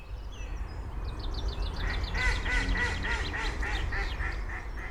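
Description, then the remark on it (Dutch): A wild duck quacks in a rapid, descending series of about eight loud calls as it comes by, over a steady low outdoor rumble, with faint higher bird chatter at the start. “En natuurlijk kwam de wilde eend voorbij.”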